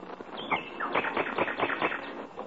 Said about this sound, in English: And out in the backyard, a bird in song